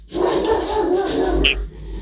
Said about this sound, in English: Oh, dogs. Sorry, oh, can you hold on? Hold on, Dottie. That's Dottie.